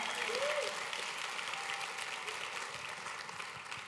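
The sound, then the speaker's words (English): An audience claps together for Pastor Kirsten as he goes back to his seat, a steady, dense wash of applause that holds at an even loudness throughout, with a brief vocal cheer rising out of it near the start. “Give Pastor Kirsten a good hand clap as he goes back to his seat.”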